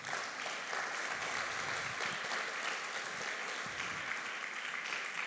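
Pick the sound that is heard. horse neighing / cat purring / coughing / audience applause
audience applause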